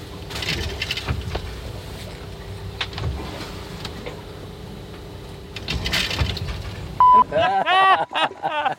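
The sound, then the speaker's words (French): Muffled creaks, knocks and rattling thuds recur over a steady rushing background as a boat rolls and loose belongings shift inside the cabin; a short beep, then a voice, comes at the end. “Là on entend le roulis, l'impact du roulis sur l'intérieur du bateau et mes affaires.”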